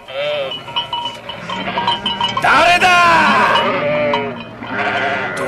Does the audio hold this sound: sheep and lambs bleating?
yes